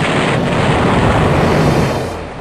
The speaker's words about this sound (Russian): И когда дистанция предельно сократилась, веером ударила по судну тремя торпедами. Через 50 минут корабль погрузился на дно.